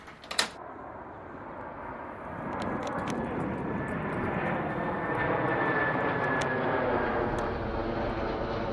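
An airplane passes overhead, its engine roar swelling into a steady, broad rumble with a faint whining tone, after a brief click at the start. No one speaks.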